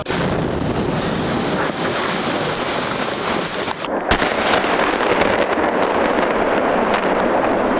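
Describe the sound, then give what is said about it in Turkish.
A dense, continuous barrage of crackling and popping blasts from explosions at a fireworks factory in Hendek, Sakarya, detonating in rapid succession, with a sharper, louder burst near the middle; no one speaks. “Bu büyük patlamadan önce tam 5 facia yaşandı.”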